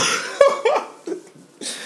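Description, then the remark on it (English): A short run of harsh, raspy coughs, three or four bursts in quick succession, with no talking around them. “Oh cough, yeah, cough, sneeze, and your elbow.”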